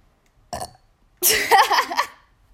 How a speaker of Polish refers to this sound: to akurat był dźwięk beknięcia